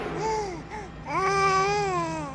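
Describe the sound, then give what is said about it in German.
A baby babbles in two bursts: a short coo, a brief pause, then a longer, sing-song vocalization that rises and falls, over a faint steady hum. “Und was hat das mit diesem Baby auf sich, das du da mitgebracht hast?”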